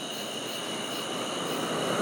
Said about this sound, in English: Here comes a car. I get a car every few minutes.